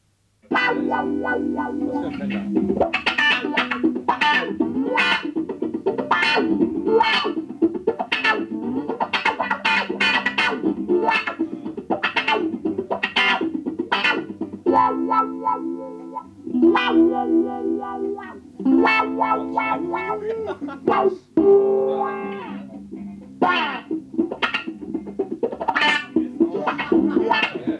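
A lone electric guitar plays with effects and a slightly distorted, chorused tone, strumming steady rhythmic chords for nearly half a minute, fairly loud with no other instruments or voices.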